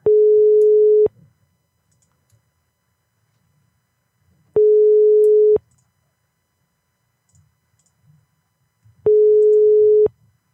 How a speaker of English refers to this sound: What kind of ring is, is this?